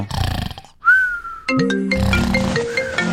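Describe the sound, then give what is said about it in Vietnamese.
A phone rings at 5 a.m. with a loud, melodic electronic ringtone of sustained tones, preceded by a brief noisy burst and a single whistle-like note. No one speaks. “Ôi trời đất ơi hú hồn chị mén ôi, ôi điện thoại điện thoại”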